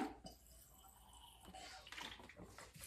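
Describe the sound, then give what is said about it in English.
Someone takes a few quiet sips of water, with soft slurping and small clinks of a glass, and no one speaking. “Sorry, I needed water.”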